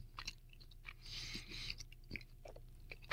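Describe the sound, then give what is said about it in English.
Wet chewing of pizza with soft crunchy bites and smacking, repeating irregularly for a few seconds, fairly quiet and with no one talking. “You like to hear me chew pizza?”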